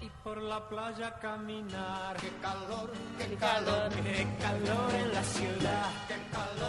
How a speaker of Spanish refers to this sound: Y si escuchamos la música atrás, es la que ustedes cantaron hoy a primera hora.